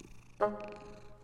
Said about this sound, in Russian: Тут за дверью раздалось очень громкое и нетерпеливое мяуканье. Кошка! Наша кошка с большой буквы.